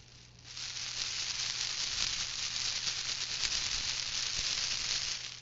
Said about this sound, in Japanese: ちょっと雨が降るような音がしてますけども、これはですね、あの女性が使う付け爪をたくさんぶら下げています。ネイルチップっていう透明なやつがあるんですけども、まあ、それがどうかな150枚ぐらいぶら下がってるという感じですね結構パラパラパラというこういう雨みたいな音になりますね